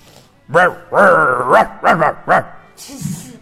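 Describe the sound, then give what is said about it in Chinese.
A hunting dog chasing Flame along a railway at night barks loudly in a quick, uneven burst of five or six high, yelping calls, one stretched into a whiny howl, ending with a softer, breathy rustle. “猎狗越追越近，眼看就要……”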